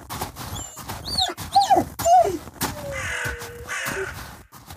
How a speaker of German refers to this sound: Es ist so still, wie es nur in der Wildnis am Yukon sein kann. Einzig die stapfenden Schritte und das gelegentliche Fiepen des Hundes stören die Ruhe.